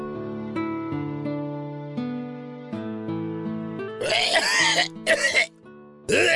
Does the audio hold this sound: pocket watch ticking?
no